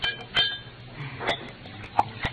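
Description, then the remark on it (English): A drink is poured into a glass amid a handful of sharp glassy clinks and light clatter, with a soft liquid hiss underneath. No one speaks. “Uh, that reminds me, Effie, pour me a drink.”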